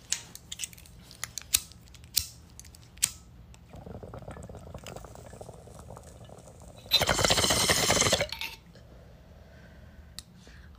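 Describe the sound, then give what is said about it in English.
A few sharp lighter-like clicks, then a low, steady water bubbling that builds into a loud, harsh gurgling rush for about a second before stopping, as someone takes a hit from a bong whose bowl is decorated with planets. “Let's take rip out, guys, okay?”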